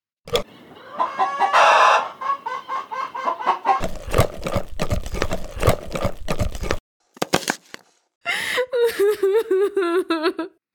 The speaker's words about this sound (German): Ich höre ich hör ein Hühnchen.